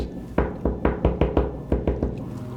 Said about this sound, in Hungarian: Mély álmotokat, egy egyre hangosodó kopogás.